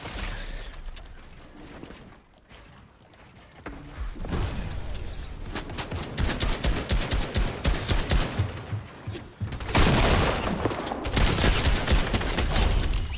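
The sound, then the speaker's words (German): Rapid automatic gunfire from a video game sprays in long, dense bursts, loud and crackling, building after a quieter start and continuing almost nonstop with brief pauses between volleys. “Dass man die ganze Zeit nur rein sprayt, echt.”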